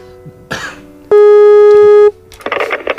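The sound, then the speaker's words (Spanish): A loud, steady telephone tone sounds for about a second, flat and unwavering, with short rough coughing bursts before and after it. “Es de tonos el teléfono.”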